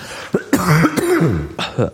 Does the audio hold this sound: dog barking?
no